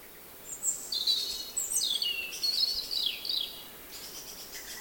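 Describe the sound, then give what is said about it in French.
Bright, high birdsong recorded at dawn in spring, with quick chirps and twittering trills, lively for a few seconds, then fading to faint calls over a soft outdoor hush. “J'ai enregistré des sons d'oiseaux à l'aube au printemps”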